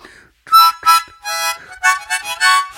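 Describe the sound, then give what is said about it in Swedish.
A harmonica plays a short series of loud, reedy chords in uneven bursts, each blast rich and buzzing, with brief pauses between them, alone. “har massa olika munspel.”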